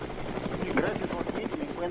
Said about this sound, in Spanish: Sí, nos vamos en vivo hasta Los Ángeles. Se encuentra en el helicóptero.